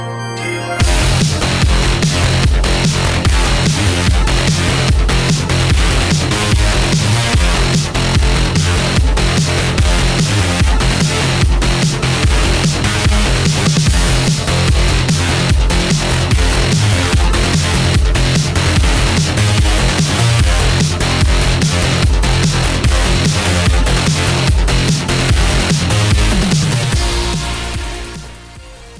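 A loud, dense music track plays continuously with a driving, steady drum beat and pulsing bass, filling the whole stretch before cutting off near the end. No voices are heard.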